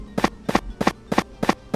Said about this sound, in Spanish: Pero estén al pendiente del sonido de la bala. Porque les va a venir muy rápido. Miren.